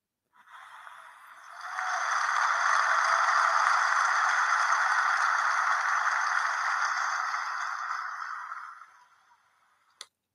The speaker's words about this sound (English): So I'm going to give myself a round of applause for reaching that milestone of 1K streams.